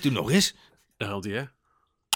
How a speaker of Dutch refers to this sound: Dat ijzeren ronde plaatje, kun je met een, een spijkertje of een schroefje kun je aan, aan de muur bevestigen, weet ik veel. En dit is het geluid van het magneetje dat in het, eh, dat van de knop oh, op het plaatje doe gaat.